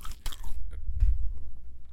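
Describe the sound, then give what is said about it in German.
Crisp crunching as someone bites and chews food, with sharp bursts of crunch early on followed by softer, steady chewing noises and no talking. “Na, na, doch, du hast, während das, du hast während du geredet hast äh, weitergegessen. Und das, das, also das Geräusch”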